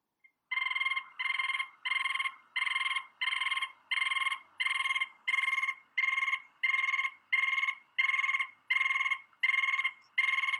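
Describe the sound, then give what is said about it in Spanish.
A rapid series of repeated buzzy, trilled notes, about fourteen evenly spaced bursts of a Tatamá tapaculo call, loud with no talking. “Esta especie. Sí, sí lo estoy escuchando. Le llaman tapaculo de tatamá.”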